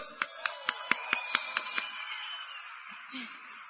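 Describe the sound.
Applause in a quick, steady rhythm: about eight sharp, even claps in under two seconds, then the clapping stops and a faint voice and murmur trail off.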